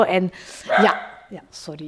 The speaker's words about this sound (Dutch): Dat is onze hond, Baloo, die een vogel ziet in onze tuin. Sorry. Dus voilà, die is er ook.